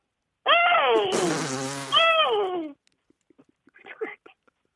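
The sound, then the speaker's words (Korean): A six-year-old child imitates a horse's neigh: a loud, roughly two-second whinny with a high, wavering pitch and a raspy, buzzing middle. Soft tongue clicks and a brief breathy burst follow. “말, 말 흉내 한번 내볼까요?”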